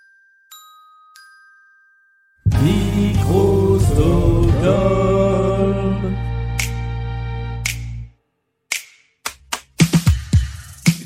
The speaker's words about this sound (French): Est-ce que ce serait pas les petits claquements de doigts du début de la saison 2 de Blind Best